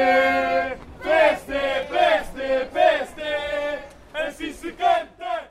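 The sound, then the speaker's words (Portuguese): About six young PSD supporters in orange T-shirts, at a Lisbon election campaign event, chant a campaign song together, loud and tuneful, in sustained rhythmic phrases that break into shorter, punchier syllables toward the end. “Não havia mais bandeiras e a meia dúzia de jovens com t-shirts laranja lá começou a cantar.”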